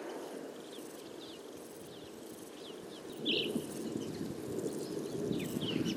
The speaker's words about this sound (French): Alors au sol, il y a beaucoup de, de criquets qui se mettent à chanter avec le soleil qui apparaît.